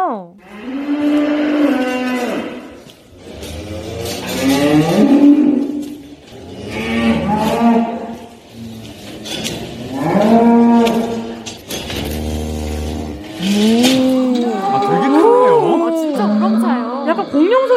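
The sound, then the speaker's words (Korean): Several loud, drawn-out cow moos recorded on a cattle farm come one after another, each a deep harmonic bellow lasting a couple of seconds, with overlapping calls near the end. “소농가에서 직접 소 울음소리를 보내주셨어요.”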